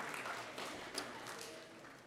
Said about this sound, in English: Um, while you're turning there, uh, uh, while you're turning there, you guys give the band a, a, round of applause? They did a good job leading us this morning. Thankful for them.